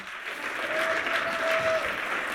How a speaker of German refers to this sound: Jetzt werde ich euch nämlich erzählen, wieso der Starkonditor, da ist übrigens gerne ein Applaus dem Starkonditor Snoopy.